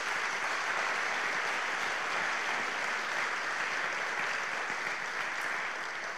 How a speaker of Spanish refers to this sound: Un aplauso para, para ellos.